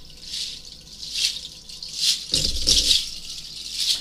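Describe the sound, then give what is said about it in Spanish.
Dried seeds of an Amazon rainforest plant rattle in repeated shaking waves, a bright dry swish swelling and fading about once a second, fairly loud, with one heavier, fuller shake partway through. “Eso lo, me sabes cómo me suena a los indios este, cuando se ponen en los pies, ¿viste? Cuando bailan, suena de, esa manera.”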